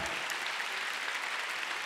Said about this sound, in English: So oh, come on, let's give God a big hand. Amen.